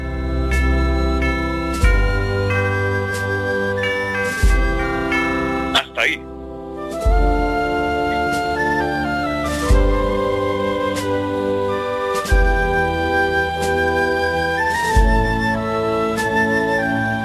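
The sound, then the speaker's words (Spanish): A bell tolls at a steady, slow pace within an orchestral passage, each ringing strike landing every few seconds and sustaining over rich, resonant low chords. “Esto, esto, esto es lo que explica el maestro se escucha esa campana también.”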